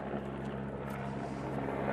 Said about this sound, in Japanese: 上空はヘリが飛んでおります